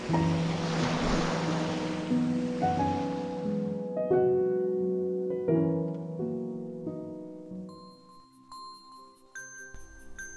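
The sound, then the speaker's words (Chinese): A soft, steady rush of ocean surf, the sound of the sea heard in a conch shell, fills the opening seconds, then fades as gentle sustained musical tones and light chiming notes take over. No one speaks. “喏，海螺，嘿嘿，你们听听啊，能听到大海的声音呐。”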